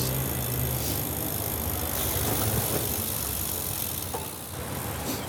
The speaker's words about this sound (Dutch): Ja, we fietsen dus nu langs de Hartstichting. Het gebouw staat hier, een wit gebouw. Naast station Ipenburg.